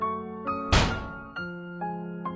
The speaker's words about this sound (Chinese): 便干脆的摔门而出。